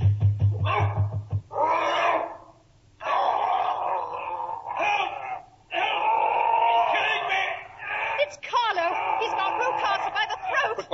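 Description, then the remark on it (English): A dog named Carlo barks and snarls fiercely in loud, sustained bursts as it attacks, with frantic human voices mixed into the commotion. “the dog. get him. get him, be too late.”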